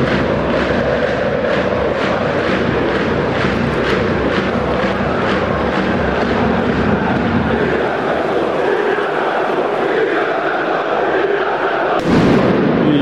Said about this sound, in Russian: Еще раз пиротехника, как вы слышите. Да, становится опасным.